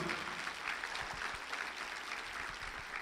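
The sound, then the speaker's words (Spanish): A crowd applauds steadily in response to a preacher's call during a sermon to give applause to Jesus. It is a dense wash of many hands clapping at once, sustained and even in loudness for the whole stretch, with no voices standing out. “El que lo crea, déle un aplauso a Jesús.”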